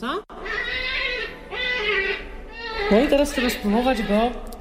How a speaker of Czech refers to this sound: Je no to takové karaoke. Pustíme třeba hlas zajíce.